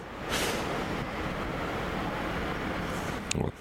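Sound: train passing by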